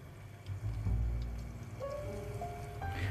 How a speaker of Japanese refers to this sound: 豚肉のね、えー、調理を今、え低温調理ですけどもねあのしてますこのグツグツ感聞こえますかね